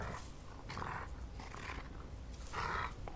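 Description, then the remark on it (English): A wolf growls and snarls in three rough, throaty bursts, fairly loud, with short pauses between each rumble and no talking. “It's a fucking wolf.”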